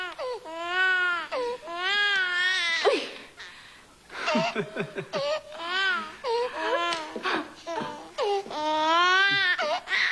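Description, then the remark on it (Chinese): A newborn baby boy cries loudly and insistently, long wavering wails broken by short gasping breaths and a stretch of choppier, stuttering sobs before the full wailing returns. “我的儿子，我的儿子，听他的声音，和我一样响亮有力。”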